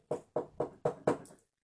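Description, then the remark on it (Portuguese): Five firm knocks on a door in a quick, steady rhythm, fairly loud, each with a short hollow ring before silence follows. “Bateu na porta.”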